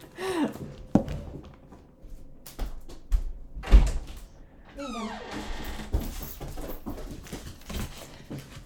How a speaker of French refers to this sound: Ah! Attendez, je vais aller ouvrir euh, la porte à mon petit pitou.